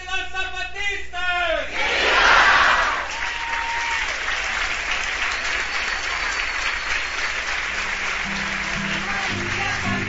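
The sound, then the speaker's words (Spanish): A large crowd at a gathering of Zapatista communities with peoples of the world, at Caracol 4 de Morelia, bursts into loud cheering and shouting for members of Vía Campesina, then settles into sustained, steady applause lasting several seconds, with a voice briefly heard at the very start. “Un aplauso fuerte para los hermanos y hermanas de Vía Campesina.”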